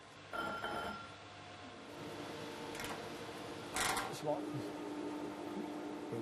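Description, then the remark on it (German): Glass ground by vocational students against a coarse silicon grinding wheel as a test, a steady gritty scraping over a machine hum, with a few louder rasping surges midway and faint voices in the background. “Erstmal Schliff an der groben Siliziumscheibe.”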